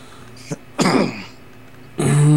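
A harsh coughing fit: a short hack, then a longer raspy cough, then a strained, throaty cough after a pause, with no talking.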